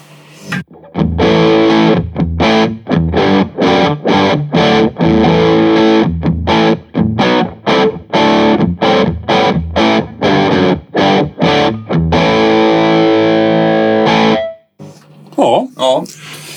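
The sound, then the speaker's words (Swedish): A heavily distorted, overdriven amplifier with its gain set much too high, at about 50 to 60 milliamperes, blares in loud, choppy bursts with dense buzzing harmonics, cutting in and out rhythmically for about fourteen seconds before dropping off, followed by a brief stretch of softer sound. “Nu ställer jag upp lite för högt här. Rätt mycket för högt till och med.”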